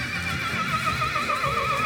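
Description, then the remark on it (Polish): An Arabian horse neighs in a long, loud, wavering whinny that fills the whole moment, at an Arabian horse stud in Białka near Krasny Staw on a sunny, warm June day among old shady trees, with a low rumble of background noise and no one talking. “Słoneczny, ciepły, czerwcowy dzień w pięknym otoczeniu starych drzew rzucających upragniony cień w stadninie koni arabskich w Białce koło Krasnego Stawu.”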